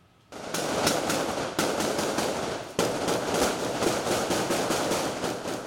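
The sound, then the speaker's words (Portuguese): Rapid, dense gunfire crackles almost without pause as police exchange fire with a wanted militia member at his hideout house in Nova Iguaçu, Baixada Fluminense, Rio de Janeiro state, Brazil: loud overlapping shots forming long volleys, with a couple of abrupt breaks and no voices. “O criminoso não se entregou e trocou tiros com policiais.”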